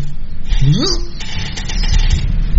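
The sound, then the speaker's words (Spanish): An old car engine runs with a steady low rumble, and a brief rising whine swells partway through before the motor settles back into its rough, continuous churn. “Ah, pero ahí está feliz el viejo coche.”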